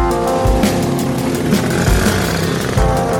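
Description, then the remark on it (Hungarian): A city bus engine drones steadily on a morning ride while a few heavy, low thuds break through as the bus jolts over potholes. No one speaks. “A busz zögykülődik a kátyúk között.”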